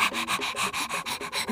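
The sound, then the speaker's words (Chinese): A husky dog pants rapidly, about seven quick breathy huffs in a steady rhythm, hissy and fairly loud, with no talking. “有一天，他遇到了静不下来的哈士奇狗狗”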